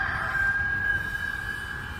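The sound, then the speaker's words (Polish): A rooster crows in one long, drawn-out, steady call that holds for a couple of seconds over a low background rumble, with no one speaking. “Piotr znowu zaprzeczył i zaraz zapiał kogut.”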